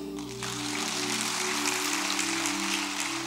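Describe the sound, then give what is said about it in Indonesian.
An audience at a sermon claps steadily for about three seconds in agreement with the preacher, a dense, crackling wash of many hands that starts quickly and holds an even loudness, with a low steady hum underneath and no talking. “Kalau yang setuju sempurna beri tepuk tangan dulu deh.”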